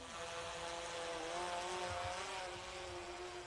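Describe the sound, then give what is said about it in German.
A quadcopter drone's propellers buzz steadily in flight while its pilot practises flight manoeuvres in difficult weather under a grey sky, a loud, continuous whine with layered tones that rise and dip slightly in pitch, with no voices. “Mit Coach Tobi übt sie Flugmanöver bei schwierigen Wetterbedingungen.”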